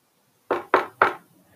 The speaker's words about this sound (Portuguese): Ao chegar à casa onde morava a vovó, Chapeuzinho subiu na rampa e bateu três vezes na porta.